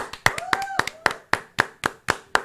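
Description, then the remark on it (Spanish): Steady, rhythmic clapping, about ten sharp claps in an even beat, fairly loud, with a brief voice-like tone sounding faintly behind the first few claps; applause welcoming a Colombian show at its opening. “Vamos a recibir con un fuerte aplauso al programa favorito de la familia colombiana, OnlyFans.”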